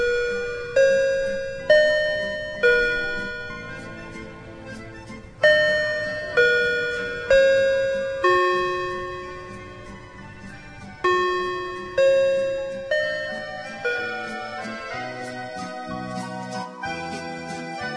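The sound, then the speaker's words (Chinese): A church bell chime rings out a slow melody on a Sunday morning, calling children to their gathering, about a dozen bright struck tones in steady succession, each fading before the next, with no voices. “此时，儿童聚会的钟声响起。”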